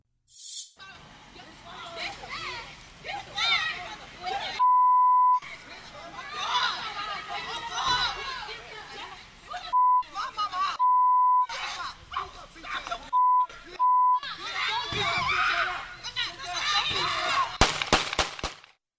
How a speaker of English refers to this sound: Well, play this. Um, it, it's it's going to be a little difficult. We have, to, we have to bleep it out, so you're not really going to be able to hear it.